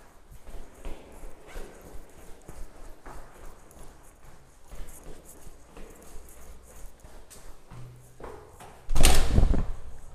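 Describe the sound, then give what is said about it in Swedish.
A door handle, pressed with an elbow, clicks and the door out to the stairwell swings open with a loud clunk and rush of sound, after several seconds of quieter, scattered footsteps and knocks. “och så tar man förstås armbågen på dörrhandtaget nu för tiden när man ska ut.”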